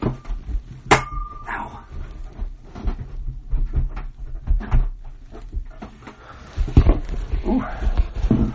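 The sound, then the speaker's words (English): A door is pushed shut, with a sharp knock, a few softer bumps and rattles, and faint muffled vocal sounds in the background. “Hold on, let me close this door real quick.”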